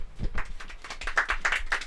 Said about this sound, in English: Round of applause for me, please.